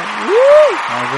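Audience applause greeting a guest, a dense, steady wash of clapping lasting about a second, with a brief rising-then-falling whoop over it midway and a low tone entering near the end.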